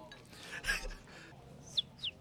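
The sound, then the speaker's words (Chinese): A person whistles an imitation of a Japanese white-eye's call: two short, high-pitched chirps in quick succession after a soft breathy noise, fairly faint overall. “这个是我自认为这个声音跟呃你在路上看到绿绣眼声音是蛮接近的，这个算是老天免费赠送我的一个超能力啊。”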